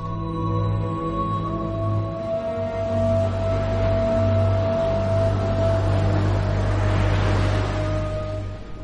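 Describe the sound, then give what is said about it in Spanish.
Stormy sea waves and gusting wind roar steadily throughout, with a constant low droning hum beneath the rushing noise. Loud, with no voices. “El mar entero era un gemido y una ráfaga y volante solas y yo, atrapado y arrojado.”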